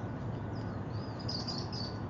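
Local finches chirp in quick, high twittering bursts, fairly faint, over a steady low outdoor rumble with no one speaking.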